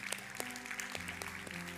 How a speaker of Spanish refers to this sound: ¿Cuánto le pueden dar un aplauso al Señor por eso? Dale Señor gracias.